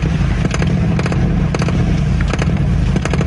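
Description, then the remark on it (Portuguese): The engine of a red 1958 Plymouth Fury, the car Christine from the 1983 film of Stephen King's novel, revs loud, a deep, rough rumble broken by repeated throaty bursts roughly every half second, with no voices over it. “amantes de suspense podem ter tido pesadelos com Christine, protagonista de um dos livros mais famosos de Stephen King e que, quando adaptado para o cinema em 1983, ganhou corpo em um Plymouth Fury 1958 vermelho.”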